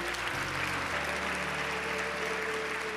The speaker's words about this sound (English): Can we give God a hand clap of praise, everyone in the building?